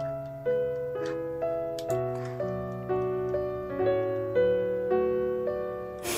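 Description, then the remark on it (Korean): Soft instrumental background music, played as BGM for reading out listeners' stories, plays on its own, with sustained chords shifting in a steady, gentle rhythm about twice a second at a moderate, even volume. Nobody talks over it. “자, BGM을 사실 아까 그게 딱, 딱이었죠?”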